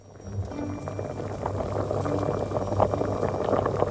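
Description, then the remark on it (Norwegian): A pot of spaghetti boiling vigorously, with a dense, continuous bubbling and popping over a low steady hum. The sound swells slightly at the start and then stays rolling and constant, with no voices. “Se for deg en gryte med spagetti som fosskoker.”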